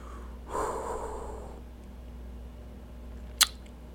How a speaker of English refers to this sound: Sorry, guys. Jesus, I need to blow my nose or something. Oh, excuse me.